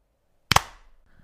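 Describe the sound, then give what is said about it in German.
A single loud, sharp hand clap made to sync audio for editing, with a slightly doubled attack, ringing briefly before fading into quiet; no one speaks. “du kannst besser Alles schneiden, wenn wir ja. jetzt nochmal klatschen.”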